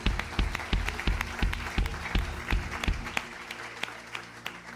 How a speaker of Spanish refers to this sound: A ver, démosle un fuerte aplauso a Jesús. Ese fuerte aplauso al Señor.